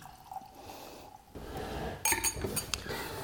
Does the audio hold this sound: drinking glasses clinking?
yes